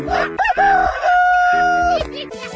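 A rooster crows once, a loud, drawn-out cock-a-doodle-doo that holds a long high note before dropping off, with a low steady background hum beneath it.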